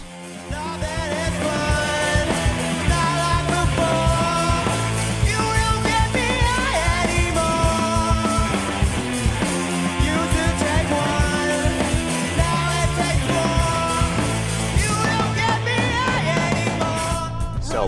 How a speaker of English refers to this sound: … did a cover of their track, …, and I'm going to play that in the background